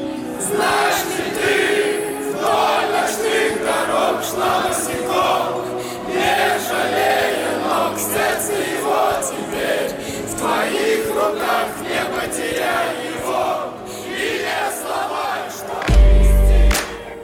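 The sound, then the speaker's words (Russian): A large crowd of FC Rostov football fans sings their club chant, a song that serves as the fans' unofficial anthem, loud and sustained, their massed voices rising and falling in a steady rhythm, with a sudden deep thump near the end. “и стала практически неофициальным гимном фанатов клуба.”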